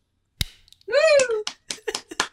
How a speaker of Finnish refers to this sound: Editoijalle vielä yksi taputus.